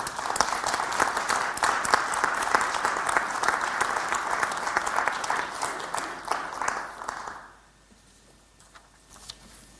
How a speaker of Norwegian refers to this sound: Vi kan egentlig gi dem en skikkelig applaus for det.